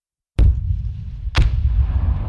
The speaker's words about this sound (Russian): Все это время итальянцы сооружали подкопы под стены Казани и, наконец, произвели в этих тоннелях взрыв, обрушивший стены.